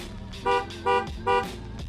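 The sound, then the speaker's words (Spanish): A car horn gives three short, evenly spaced honks in quick succession, bright, with a low engine rumble underneath, as the car stops beside a gas pump. “Soul se detuvo al lado de la bomba 2, tocó su bocina un par de veces”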